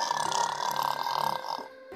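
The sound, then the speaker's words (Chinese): A bear lying comfortably in a tent snores: a single drawn-out, raspy snore with a buzzing, nasal tone holds steady for about a second and a half, then trails off into quiet. No one speaks. “波波熊舒舒服服地躺在帐篷里，很快就打起了呼噜。”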